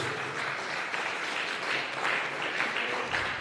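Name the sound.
audience clapping hands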